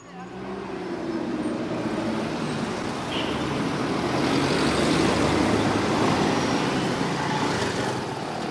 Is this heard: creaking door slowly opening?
no